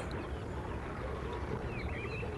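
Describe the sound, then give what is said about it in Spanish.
A steady, distant rush of flowing river water at nightfall under a slightly cloudy sky, heard from a path winding through low scrub and reeds, forms an even wash of sound throughout, with faint chirps of birds flickering above it now and then. “En la lejanía se oye el correr del río.”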